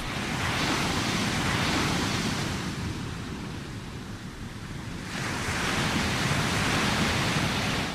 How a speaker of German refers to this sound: Vom Fenster aus sieht man schon das Meer. Draußen kann man die Wellen hören. Die Wellen des Atlantiks, so beliebt bei Surfern. So geht Schwerverbrecherruhestand ab an die Algarve.